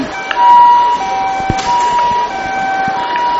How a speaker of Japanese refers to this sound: サイレンの音が聞こえてきましたね。